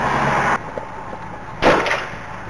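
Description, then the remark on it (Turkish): A single loud gunshot cracks out inside a taxi, fired by an armed attacker, the bullet grazing the driver and lodging in the roof; its sharp bang rings briefly in the cramped cabin after a moment of rumbling cabin noise. “Bir el ateş sesi duyuldu.”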